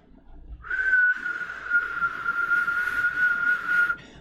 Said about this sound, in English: You hear that whistle? You hear that fucking dog whistle to the uh, Democrats in Congress?